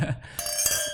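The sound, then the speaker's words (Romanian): Glasses clink together in a toast, a bright chime with a lingering ring, followed by a couple of lighter taps. No one speaks. “Hai exact, noroc.”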